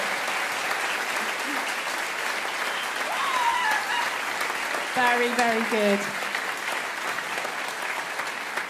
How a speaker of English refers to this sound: I think just as they're going off and clearing up, why don't we give them one more round of applause? So amazing.